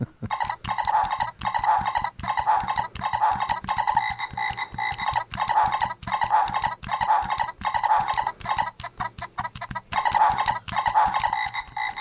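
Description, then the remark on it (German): A children's toy frog croaks over and over in a steady, mechanical rhythm, roughly one croak every second or less, fairly loud, with no voices. “das ist, glaube ich, ein Hund oder so, ein Wolf. Ähm, oder den Frosch.”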